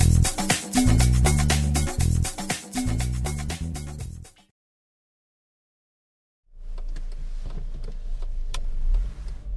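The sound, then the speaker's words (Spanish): A short burst of rhythmic music cuts to silence, then the steady low rumble of a car interior rises, with faint clicks and ticks over the droning cabin noise. “tenemos nuevo episodio, otra vez desde el coche.”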